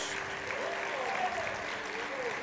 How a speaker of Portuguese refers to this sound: Então dá 30 segundos de adoração ao Senhor. Aplauda mais o Senhor. Dá um glória a Deus.